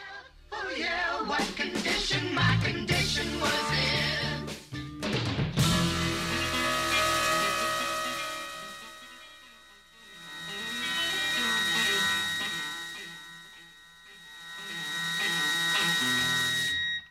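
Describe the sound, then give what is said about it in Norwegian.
A song from the soundtrack of the film The Big Lebowski: a few seconds of choppy, punchy notes give way to a dense, buzzing sustained wash of sound that swells and recedes in slow waves, with no voices. “Vi eh, sparker i gang låta.”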